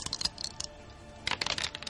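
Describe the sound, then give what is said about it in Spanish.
Three small four-sided dice are rolled and clatter across a hard surface, a quick burst of light plastic clicks, a pause, then a second rattling flurry before they settle. Fairly quiet, with no talking. “Ahora él, que como tiene tres patas, corre bastante, va a tirar tres dados de cuatro.”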